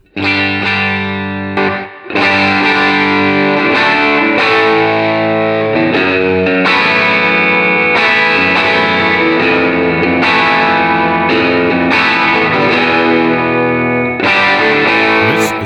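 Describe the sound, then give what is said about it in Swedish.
Electric guitar through a germanium overdrive pedal with volume and gain turned all the way up and tone at about one o'clock, loud and thick with gain, strumming sustained distorted chords that change every couple of seconds, with no talking. “Nu har vi volym och gain rakt upp va?”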